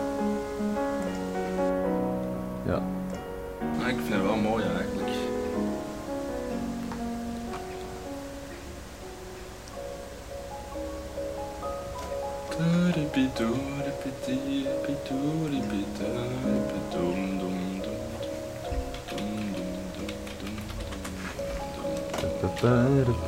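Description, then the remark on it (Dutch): Steady rain hiss from a recording made in the rain runs through the whole recording, a constant wash of noise beneath a person talking. “Die uh, ruis is, is omdat hij in de regen is opgenomen?”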